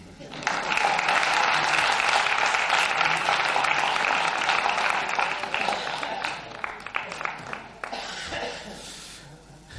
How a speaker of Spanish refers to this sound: O sea, que pido una aplauso otra vez